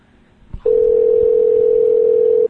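A steady, loud telephone line tone starts after a soft click and holds unbroken for nearly two seconds, then cuts off abruptly; no one speaks over it.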